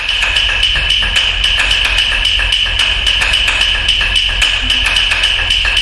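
Sharp wooden clicks from pieces of wood repeat in a fast, steady, interlocking pulse, bright and ringing like claves, forming a hypnotic minimalist percussion composition that plays on without voices.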